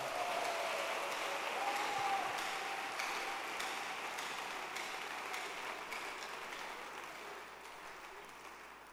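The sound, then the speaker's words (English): A large church audience claps steadily for Jesus during a worship session, a dense wash of many hands that stays loud and gradually tapers off over several seconds, with no voices standing out. “Clap your hands for Jesus.”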